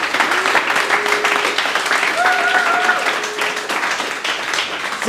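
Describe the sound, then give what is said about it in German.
A live audience bursts into steady applause, dense overlapping clapping filling the room for several seconds, with faint voices and a few whoops or shouts rising through the noise. “klatscht doch einmal, damit wir wissen, dass wir live sind.”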